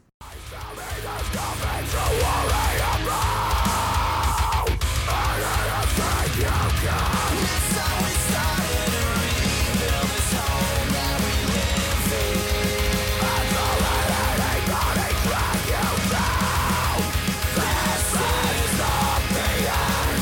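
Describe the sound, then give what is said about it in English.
A loud heavy metal track plays throughout, with harsh screamed vocals over dense distorted guitars and driving drums, the full band sound continuous and powerful from start to finish. “I liked every part of the album that didn't have this guy's unclean vocals in it. Too rough.”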